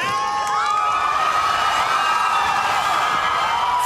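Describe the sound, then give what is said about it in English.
A large crowd cheers and shouts continuously during an interview with Lewis, a dense, loud roar of many voices with occasional whoops rising above it, sustained without pause throughout. “three three entities involved in that conversation. Lewis, yourself, and the crowd yes.”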